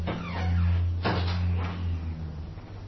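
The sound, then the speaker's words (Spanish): A door slides or swings open with a low rumbling hum and a sharp knock partway through, followed by a softer scrape, moderately loud with no talking; it is being opened to let in more air. “Y eso como así, con la puerta abierta.”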